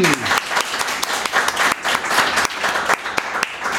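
Steady applause from an audience, many hands clapping densely and continuously with a few sharper claps standing out, fairly close and loud throughout.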